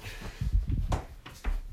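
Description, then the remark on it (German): A door by the attic stairs is pushed shut but fails to latch, giving a few dull thumps and a rattling knock against the frame, with brief scraping in between. “So, Tür.”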